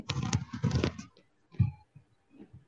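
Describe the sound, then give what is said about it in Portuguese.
A motorcycle roars past, loud and rough for about a second before fading, followed by a few quieter low rumbles and thumps. “Não, não, é porque ele tava passando a moto barulho.”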